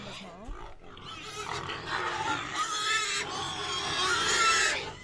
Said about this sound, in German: Also in dem Kreislauf ist das Schwein natürlich in erster Linie, das hat einen Wühltrieb und geht seinem Wühltrieb nach.